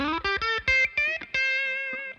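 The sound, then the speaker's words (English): Distorted electric guitar with a P90 pickup and a true out-of-phase wiring gives a thin tone, playing a quick run of about six picked notes, then holding a long sustained note that rings out. Fairly loud, with no talking. “I get the …, … thing, or plus with distortion just add distortion”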